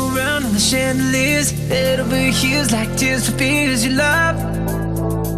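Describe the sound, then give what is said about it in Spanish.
An upbeat pop track with a bright, bouncy 80s-style piano melody over steady bass and drums, loud and full throughout with chords shifting every couple of seconds, no singing in this stretch. “se han juntado para hacerte un pez pelotazo que suena así de bien con este piano de los 80 maravilloso, ¿eh?”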